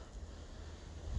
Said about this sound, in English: And sorry for the wind. I'm outside. It's windy as heck outside, so I apologize.